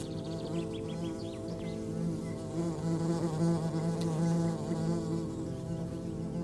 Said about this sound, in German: Die Wespe, die sich der Herr gerade mit seinem Stock vom Leib gehalten hat, gesellt sich zu einem Wespenpulk, der gerade eine Feige unter dem Feigenbaum zerfleischt.